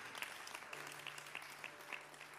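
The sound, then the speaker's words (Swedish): A small group claps in a brief, scattered round of applause, the individual claps audible against a low steady background hum. “Kom igen, det är nästan värre en liten applåd än just den, den lilla”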